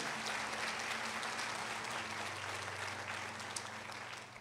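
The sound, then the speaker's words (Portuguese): An audience applauds in a steady, dense wash of clapping that holds fairly constant and tapers slightly toward the end, with a low steady hum beneath it. “Você crê, aplauda.”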